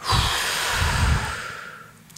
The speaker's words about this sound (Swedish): Och i nederdelen, då kommer man från nedre högra hörnet bort till nedre vänstra hörnet, andas man ut.